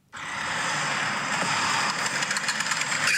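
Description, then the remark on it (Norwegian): A car engine idles steadily, with a rapid metallic clacking ticking along on top of the running motor, no voices. “Den klakkelyden der, da. Hva koster den lyden der, tror du?”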